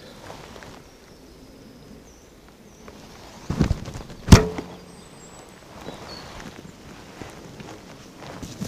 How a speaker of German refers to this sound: Ihr habt hoffentlich auch den Einschlag im Tier gehört. So ein schönes, warmes Flocken. Und nochmal ein zweiter Pfeil.